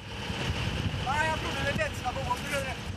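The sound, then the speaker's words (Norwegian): Steady low engine rumble and rushing wind noise from a small Coast Guard light boat zigzagging between lobster pots on its way to the lobster protection area at Kvernskjær, continuous, with brief faint voices rising over the drone midway. “Om bord i Kystvaktens lettbåt kjører vi i sikksakk mellom teinene med kurs for fredningsområdet ved Kvernskjær”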